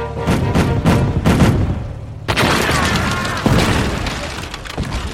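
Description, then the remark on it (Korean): A rapid series of heavy cannon booms, fired at enemy ships heading toward Choryang, goes off loudly in quick succession, followed by a sustained rumbling roar of further blasts and battle noise. “초량으로 향하고 있는 적선 내 적에게 한포를 발사하라!”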